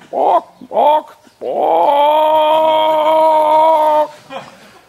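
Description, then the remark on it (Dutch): A person imitates a hen saying "pok": two quick clucks, then a long, steady, drawn-out call lasting a couple of seconds, ending with one more short cluck. “Als je een kip hebt die zegt pok,”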